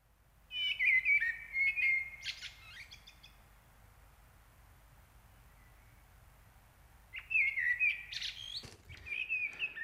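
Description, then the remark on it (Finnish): A common blackbird sings two mellow, fluted phrases, each breaking into a high, scratchy twitter at the end, with a few quiet seconds between them. The song is clear, with no voices. “Mä luulen, että mustarasta on kyllä sen verran tuttu, että tämän äänen suurin osa tuntee.”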